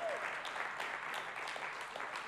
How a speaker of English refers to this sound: So really, I just want to give them an applause. They're doing a great job. All of them together.